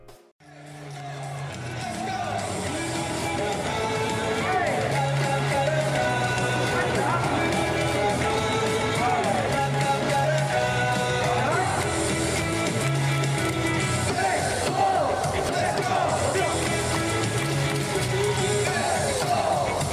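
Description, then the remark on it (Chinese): The cheer song of baseball leadoff hitter Guo Tianxin roars from a crowd, many voices chanting together over a steady, fast driving beat, loud and unbroken from start to finish with rising, energetic phrases. “OK，那我们 就来听一下郭天信的音乐曲吧。”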